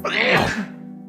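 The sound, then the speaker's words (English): A single sneeze, fairly loud: a quick breathy build-up bursting into a sharp, noisy expulsion, then a short voiced tail fading out. “Bless you.”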